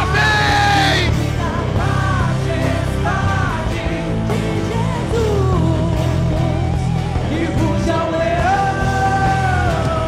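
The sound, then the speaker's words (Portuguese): A crowd of voices shouts "Vem Senhor Jesus" loudly together for about ten seconds, overlapping yells rising and falling in pitch, dense and sustained with no pause. “Tenta dar o seu grito mais alto aí na tua casa aí.”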